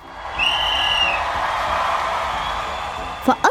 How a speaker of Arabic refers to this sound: حان الوقت اطلقت الصافره معلنه بدء المسابقه